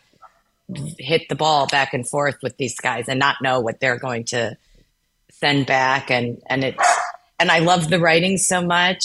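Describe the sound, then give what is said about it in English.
A dog barks in the background while a person keeps talking; the barks are brief and mostly buried under the steady speech. “Pardon my dog.”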